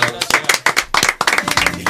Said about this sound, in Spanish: Está un aplauso.